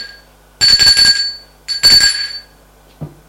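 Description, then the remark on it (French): A doorbell rings twice in quick succession, each a bright, rattling electric ring lasting under a second, followed by a soft thud. Fairly loud, with no voices. “On sonne la porte.”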